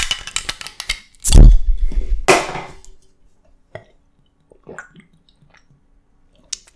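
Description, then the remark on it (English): A double Two Hearted Ale is opened with a sharp hiss and poured in a loud, gushing splash, with about half of it spilled. The fizz then fades into a few faint drips and clinks. No one speaks. “I only spilled half of it on me, so that's good. Today we're sipping on a double two hearted ale.”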